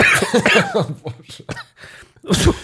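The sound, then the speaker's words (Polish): A person coughs several times, harsh throaty bursts in an irregular sequence with short pauses between them, ending in one more loud hack. “Będę kaszlał.”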